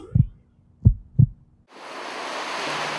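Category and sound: sound effect, heartbeat sound effect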